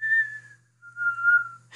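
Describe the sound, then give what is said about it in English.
A person whistles two drawn-out notes, the first higher and fading, the second lower and swelling, imitating the eerie whistle of a wolf, with a low steady hum underneath and a brief rustle at the end. “Yeah, and then you hear the the scary little whistle of the wolf”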